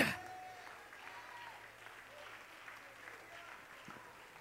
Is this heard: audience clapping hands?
yes